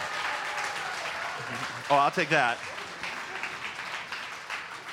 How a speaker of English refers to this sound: Come on, give them a big round of applause. They were fantastic.